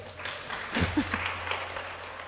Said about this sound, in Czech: Ty jsi a to šikovná. Je, a to, to je pro mě měli by... zatleskat, děcka. Co myslíte?